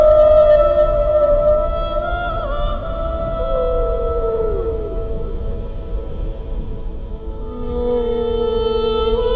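A 52-hertz whale call, from the whale humans named Alice, first detected by underwater monitoring: long, sustained tonal moans with slow pitch bends and sliding glides, carried over a steady low rumble of underwater noise, with no talking.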